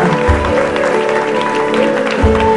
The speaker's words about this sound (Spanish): para un aplauso. Aleluya.